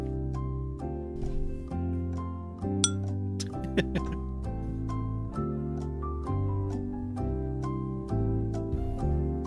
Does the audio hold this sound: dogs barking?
no